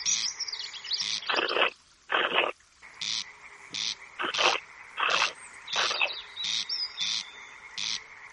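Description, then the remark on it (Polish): A comb scraped along the edge of a piece of wooden board, imitating a meadow bird's call, gives a series of dry, rasping, croaky bursts in an uneven rhythm, some short and some drawn out, fairly loud with no talking. “Jego głos to jakby przejechać grzebieniem po kancie deski.”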